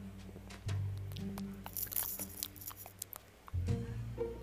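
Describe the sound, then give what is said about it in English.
A low, buzzy fart rumbles out in two stretches, fairly loud, mixed with crackling, crunchy rustles and sharp clicks in between. “Oh, you farted.”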